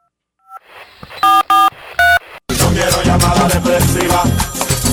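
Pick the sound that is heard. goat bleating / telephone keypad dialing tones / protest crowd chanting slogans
telephone keypad dialing tones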